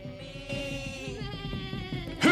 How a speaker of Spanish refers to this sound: Escucha. No oyes nada. Sí, algo se acerca y veo polvo y más polvo, eh, como si fuera un rebaño de ovejas que se acerca.